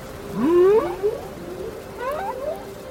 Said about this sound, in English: and this is a humpback whale. They have the most complex songs. They're super beautiful. They evolve. I mean, it's it's quite magical.